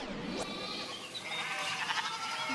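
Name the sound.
sheep bleating sound effect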